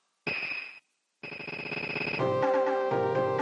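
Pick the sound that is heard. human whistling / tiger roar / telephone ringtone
telephone ringtone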